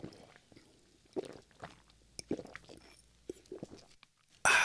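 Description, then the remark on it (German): Someone takes a sip of a drink: a run of soft, wet slurping and swallowing clicks at an uneven pace, ending in a sudden loud, breathy burst of noise. No one speaks. “Ich nehme jetzt mal einen Schluck von meinem edlen äh, Gesöff.”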